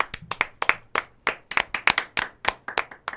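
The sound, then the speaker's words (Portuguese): A small audience claps in a loose, uneven rhythm, sharp bright claps landing a few times per second and overlapping slightly, with no voices over it. “palmas pro Carratu.”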